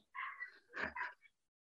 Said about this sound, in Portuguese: Você escuta o cachorro aqui? aqui? Vocês escutaram um cachorro não, não? Né? Ainda bem. Não.